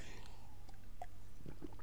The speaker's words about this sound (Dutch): Even een slokje water.